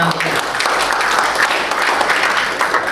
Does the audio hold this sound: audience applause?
yes